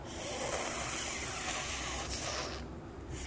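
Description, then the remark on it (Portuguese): A long, breathy snake-like hiss pushed through the teeth, the sound of Bhima controlling himself, held steadily for about two and a half seconds before tapering off, fairly loud with no talking. “Realmente, Bima se controlando muito faz de novo aquele barulho de controle como se fosse uma cobra”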